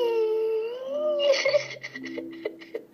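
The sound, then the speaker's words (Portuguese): A girl cries, starting with a long, high wavering wail that breaks into short, choppy sobs and gasps, fairly loud, with no talking. “A menina está derramando o mar todo pelos olhos. Ela está chorando, meu filho.”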